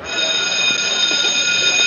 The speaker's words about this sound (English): Wait, you hear the bell?